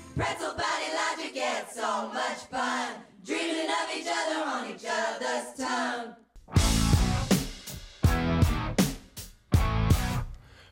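Loud, distorted shouted vocals open alone for about six seconds, then a heavy rock band crashes in with pounding drums, bass and guitar in abrupt, stabbing bursts.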